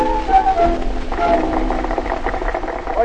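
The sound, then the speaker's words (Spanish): An audience applauds in a steady, dense patter of many hands clapping, growing a little fuller after the first second and holding even throughout, with a low hum beneath. “oye, oye cómo aplauden,”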